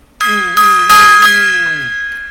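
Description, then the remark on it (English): A loud metallic gong chime rings out, swelling with a couple of quick follow-up strikes, then its shimmering, bell-like tone slowly bends lower and fades over about two seconds. “Gong time.”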